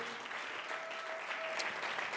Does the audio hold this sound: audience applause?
yes